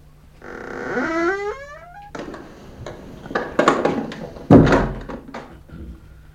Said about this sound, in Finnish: Ja nyt ovi jälleen lukkoon.